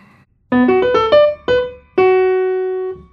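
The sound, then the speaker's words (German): The opening theme of a work's last movement, in three-four time at a faster tempo: a short instrumental phrase of sustained, harmonically rich notes, a quick rising run of several tones, then accented chords ending on a long held note, played clearly with no voices. “Das ist die Version des Anfangs aus dem ersten Satz und im letzten Satz geht das dann so.”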